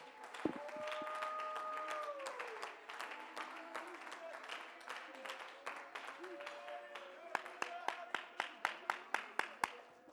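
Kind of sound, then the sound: crowd, audience clapping hands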